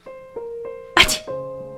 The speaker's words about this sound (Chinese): 我终于打了个喷嚏，寒冬腊月的天气真不是开玩笑的。